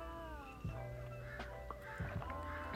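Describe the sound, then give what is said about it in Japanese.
Crows caw outside in harsh, drawn-out calls, a few overlapping cries, with no one speaking. “すごいカラスが乾かないてます”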